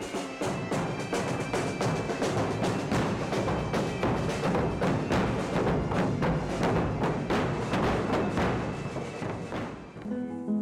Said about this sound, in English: Galicia's ancient Celtic roots are particularly evident in its music. With wailing pipes and thundering drums, the Celtic heritage announces itself loud and clear.